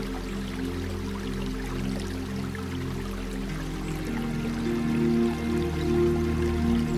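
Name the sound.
flowing river water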